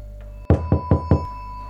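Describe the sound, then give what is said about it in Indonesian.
Four sharp knocks on a second-floor window, evenly spaced, each a quick hollow rap standing out against a low steady hum. “jendelaku seperti ada yang mengetuk.”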